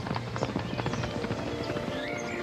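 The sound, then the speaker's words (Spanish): A herd of wild horses gallops back from the mountains, their hooves clip-clopping in a fast, dense, irregular rhythm, steady throughout, with no talking. “Una semana después, el caballo volvió de las montañas trayendo consigo una manada de caballos.”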